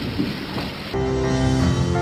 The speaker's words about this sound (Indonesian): Tapi ih, mager banget gitu nggak sih hujan-hujan cari makan keluar? Mana ada petir lagi. Serem ih.